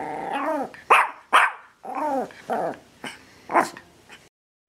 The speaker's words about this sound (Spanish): pero por suerte a Pancho se le ocurrió pegar un salto y subirse a la cama con Orbis y todo en su boca. Pero, ¿qué haces, perro loco?